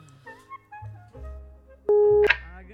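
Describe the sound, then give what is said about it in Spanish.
A telephone busy signal on a landline, heard when calling Woody Allen: one loud, steady beep cuts in near the end, following a stretch of muffled voices and low line noise. “Ahí comunica, mira. No tiene de celular, es teléfono de línea.”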